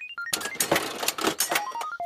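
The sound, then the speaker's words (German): A ticket machine, set to the ticket option, has its lever pulled: a mechanical lever clunks and the machine whirs and rattles as it dispenses a ticket, bracketed by short rising and falling electronic beep tones at the start and end. “Also stelle ich das jetzt auf Ticket und äh, betätige den Hebel.”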